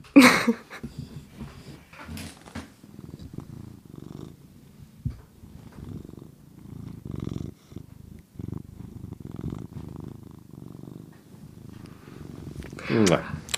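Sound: cat purring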